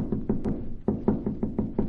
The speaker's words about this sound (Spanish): Aquí en esta celda hay un anciano. Parece dormido. Llama a la puerta hasta que despierte. No se despierta. Volveré a llamar.